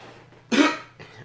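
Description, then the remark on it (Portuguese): A person coughs once, loud, a harsh burst that fades quickly, followed by a softer, shorter second cough over a faint low background hum, while speaking during a live video broadcast. “Ao vivo é assim, é tossindo e falando e fazendo a coisa acontecer.”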